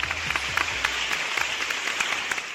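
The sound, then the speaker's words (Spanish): A burst of steady applause from a group, dense overlapping claps forming a continuous crackling wash at an even, moderately loud level, with no one speaking over it, given for the speaker's female broadcast-booth co-host. “Un aplauso para mi compañera de cabina, por favor, mi amiga de huevos, mi compañera de quinceañeros.”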